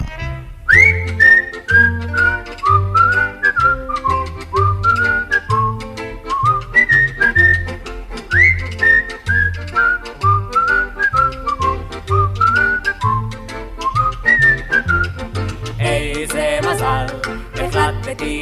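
An upbeat recorded Israeli song plays, its instrumental opening led by a bright whistled melody over a steady bouncing bass and rhythm, loud and continuous with no singing yet.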